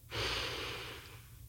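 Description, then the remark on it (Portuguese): A single deep breath drawn in during a breathing exercise, a broad airy hiss that swells quickly and then slowly fades over about a second, with no talking. “Vamos inspirar de novo.”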